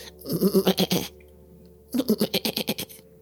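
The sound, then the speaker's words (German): A goat bleats twice, heard muffled through a stone wall, each call a quavering, stuttering cry lasting about a second, separated by a short pause. Both calls are fairly loud, with no talking over them. The goat is to be sacrificed in a ritual. “Die, die Bekloppten wollten eine Ziege opfern, um irgendwas aus den Niederhöllen zu beschwören.”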